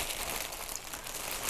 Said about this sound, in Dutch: Oh, dit klinkt zo lekker, zo'n plastic verpakking.